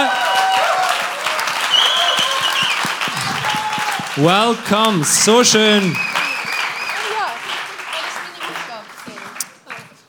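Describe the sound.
Sustained audience applause, a dense steady patter of many hands clapping for about ten seconds, with a few voices calling out and cheering over it before it tapers off at the end.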